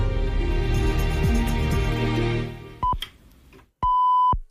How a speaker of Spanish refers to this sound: Esto es Onda Cero Algeciras, esto es más de uno Campo de Gibraltar. Segundos tan solo para las señales horarias de la una.